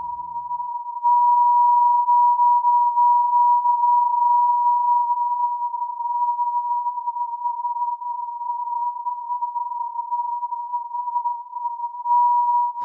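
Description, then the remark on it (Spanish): A high-pitched recording of the Leonid meteor shower: one steady, piercing tone holds loud and unbroken for the whole stretch, with faint flickers around it and no voices. “Escuchen, estas son las leonidas.”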